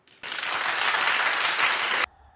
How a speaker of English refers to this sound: Clap if you think she should suffer.